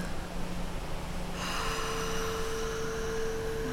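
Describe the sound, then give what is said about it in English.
A long, deep exhale through the nose during a breathing exercise, a steady airy rush lasting several seconds with no talking, while a faint steady tone rises underneath partway through. “Just breathing it all out.”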